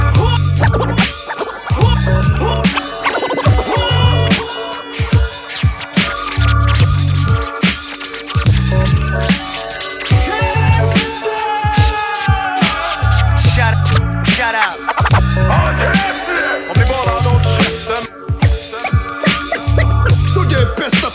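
Rapid turntable scratch cuts slice rhythmically over a loud, booming hip-hop beat, the scratches chopping in quick bursts throughout without any vocals.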